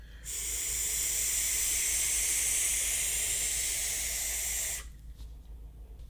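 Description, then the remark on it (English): A long, steady inhale drawn through a DNA 75 electronic vape with a color-changing drip tip, a breathy airy hiss holding evenly for about four and a half seconds before cutting off, leaving a faint low hum. “I, with every DNA 75, no matter the resistance, I have to give it an extra long drag because it's not, if this was unregulated, I could be getting 3.7 volts, maybe 3.9 volts off the battery, and it wouldn't be going through the DNA 75”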